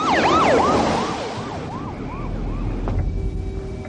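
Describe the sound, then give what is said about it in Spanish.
Hawk's police patrol car races at high speed along a road with its siren wailing in rapid rising-and-falling sweeps, loud at first then fading, engine and road noise rumbling underneath. “El coche patrulla de Hawk circula a gran velocidad por una carretera.”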